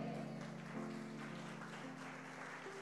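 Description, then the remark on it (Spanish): A church audience says amen and applauds the Lord, clapping steadily throughout in a dense wash of applause from many hands, with sustained low keyboard notes holding underneath and shifting pitch a few times. “¿Alguien necesita decir amén y aplaudir al Señor?”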